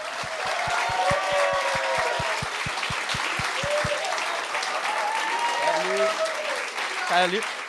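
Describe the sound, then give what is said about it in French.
Loud, sustained audience applause fills the whole stretch, with a steady rhythmic thumping beat under the first half and scattered cheers and whistles rising through the clapping. “Mesdames et messieurs, donnez-leur une bonne main d'applaudissement.”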